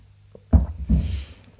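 A dry swallow from a dry mouth: a faint click followed by two low, throaty gulping sounds in quick succession, heard on its own with no talking.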